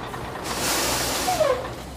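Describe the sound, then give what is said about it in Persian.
A heavy transit truck rumbles as it pulls into a parking lot, with a broad hiss of air brakes swelling through the middle and a brief descending brake squeal near the end. “دو کامیون ترانزیت در حال رد شدن”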